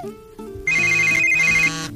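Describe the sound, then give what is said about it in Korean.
A telephone rings at about 2 a.m. with a bright electronic melody, stepping through a short repeating tune, loud, with no voices. “느닷없이 새벽 2시경에 전화를 해서는”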